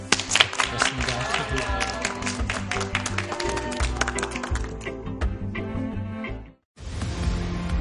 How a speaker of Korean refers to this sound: 또 이 시기에 이런 또 힘든 주제로 저희에게 좋은 강연 해주신 선생님께 다시 한번 감사의 박수를 보내드립니다.